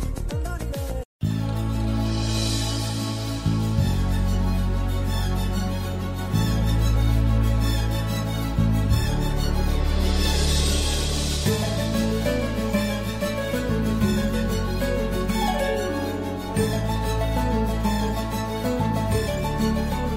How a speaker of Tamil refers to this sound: இப்போ ஒரு அழகான பாடல் வருது கேட்டு ரசிச்சுட்டு வாங்க